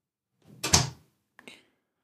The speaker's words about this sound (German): Ich mach die Tür zu.